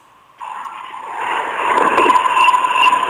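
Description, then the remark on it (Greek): A metro train rumbles past in the street, its roar starting abruptly and steadily swelling in loudness, with a sustained mechanical whine and faint high-pitched tones over the noise, heard through a caller's phone line. “Τι έγινε, το μετρό περνάει.”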